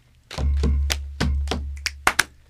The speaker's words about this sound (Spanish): Tres y. Luego un chasquido y un aplauso.